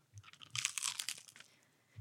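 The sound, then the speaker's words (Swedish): Crunchy chewing while eating, a rapid series of crisp, crackly bites and mouth noises that swell in the middle and fade toward the end, with no talking. “Då är det vi som är igång och smaskar igen.”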